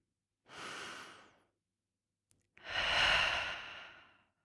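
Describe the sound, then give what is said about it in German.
Two deep breaths with no talking: a shorter, airy inhale, a brief pause with a faint click, then a longer, fuller exhale that fades out slowly. “Wir atmen jetzt mal durch.”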